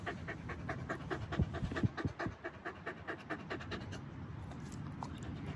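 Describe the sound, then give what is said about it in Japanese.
A Hokkaido dog named Ichiro, with long scarf-like fur around its neck, pants steadily, quick rhythmic breaths repeating throughout, with a few low thumps or rustles early on and no talking. “やっぱ一番違うのは襟巻きだね首の周りの毛がね柴ちゃんって首の周りが結構毛が短いんですけど北海道犬は首の周りがもう、えー、マフラーのようにね毛が長いと、ね、いう感じなんですけどねはいと一郎君”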